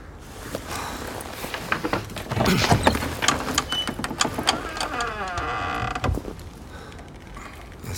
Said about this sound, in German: Wir machen die Tür auf. Der Tiger kann rein und sich den Bauch vollschlagen und wir stehen nicht mehr auf seinem Speiseplan.